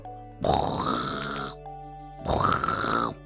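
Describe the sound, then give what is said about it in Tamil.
A voice imitates an elephant snoring with two long, loud, rasping breaths separated by a short pause, each a rough, grunting rumble that swells and then cuts off. “அப்படின்னு பயங்கரமா கொரட்டை விட்டு தூங்கிட்டு இருந்துச்சு”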